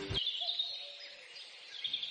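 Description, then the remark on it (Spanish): Birds chirping in the morning, a continuous high twittering chorus that sounds soft, with a brief low thump at the very start and no voices. “El piar de los pájaros dándome los buenos días.”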